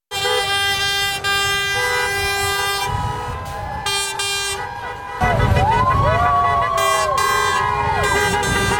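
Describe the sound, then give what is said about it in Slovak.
Loud, sustained air horns from a long convoy of trucks in Ottawa, Canada, blare continuously and overlap one another as truckers protest mandatory vaccination, with sliding, wavering tones joining in toward the end over a low traffic rumble. “Čo si však nemyslia autodopravcovia a kamionisti v hlavnom meste Otava, ktorí vytvorili dlhokánske kolóny na cestách, aby tým vyjadrili hlasný a bolestivý nesúhlas s povinným očkovaním.”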